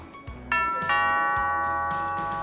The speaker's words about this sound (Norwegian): Men da ringer det på døra.